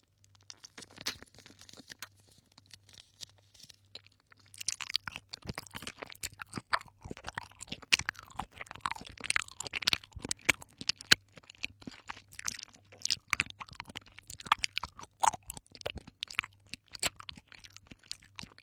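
Wet, squishy chewing of Crayon Shin-chan jelly, a dense run of sticky mouth clicks and smacks that starts sparse and grows busier after a few seconds, with a steady low hum underneath and no talking.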